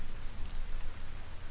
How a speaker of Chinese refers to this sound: 天在下雨，遥远，不确定。